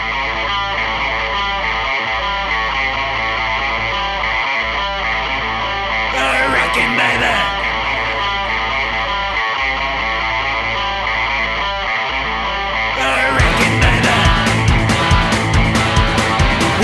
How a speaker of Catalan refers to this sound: És una de... cançó mm, dels crèdits.